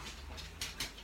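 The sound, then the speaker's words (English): A dog named Sammy gives three short, sharp yips in quick succession, fairly faint, over a low steady background hum. “That was my dog, ladies and gents.”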